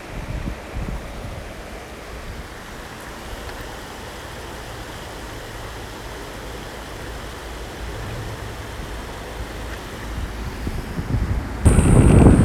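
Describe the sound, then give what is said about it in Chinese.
Steady rushing wash of sea waves blended with buffeting wind rumble, continuous throughout, swelling into a louder gust near the end. No one speaks. “我喜欢溪水的声音胜过海浪的声音，虽然我等一下要去看海浪，看海。”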